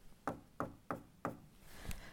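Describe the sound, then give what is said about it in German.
Four quick knocks on wood, evenly spaced, followed by a softer, duller fifth tap as the knocking trails off. No one speaks. “Ich klopfe hier mal auf Holz.”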